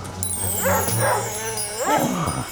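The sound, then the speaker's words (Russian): The owner's small dog yips and whimpers in a few short, high-pitched bursts as it is grabbed and a sack is thrown over it, loud, over a low steady hum in the background. “Да накинь ты на нее мешок-то, надоело Схватили хозяйскую собачку Это что, разбойники?”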